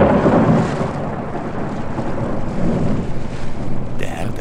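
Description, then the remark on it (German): A thunderstorm rumbles with rolling thunder over steady, heavy rain, a loud continuous wash of low rumbling and hiss, swelling slightly in the final moments. “Lüfte ließ Stürme über die Erde brausen, und die Herrin des Meeres brachte das Meer so sehr in Wallung, dass es sich aufbäumte und viele Menschen verschlang.”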